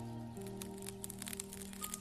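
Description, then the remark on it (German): Soft, irregular crackling from the water of a lake, a steady stream of tiny fizzing ticks and pops, heard quietly over a faint constant low hum with no voices. “Es klingt wie ein leises Knistern und scheint vom Wasser selbst zu kommen, als würde der See dir leise zuflüstern.”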